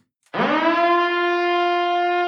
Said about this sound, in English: Oh no, it's the devil's advocacy alarm.